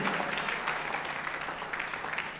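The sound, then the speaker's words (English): A crowd applauds steadily, many hands clapping at once in a dense, sustained patter that fills the space at moderate volume. “All those who are clapping, may heaven, heaven, heaven bless you and give you understanding.”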